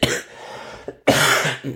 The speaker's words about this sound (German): immer für Podcast super, wenn einer wie Sau hustet. Aber liegt daran, dass ich, glaube ich, gerade ein bisschen was getrunken habe.